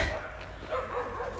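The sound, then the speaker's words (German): An off-leash dog barks repeatedly at another dog in the background, moderately loud, with a steady outdoor rumble underneath. “ihr hört ihr im Hintergrund einen bellenden Hund.”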